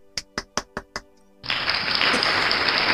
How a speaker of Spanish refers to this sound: Le vamos a dar otro aplauso porque no.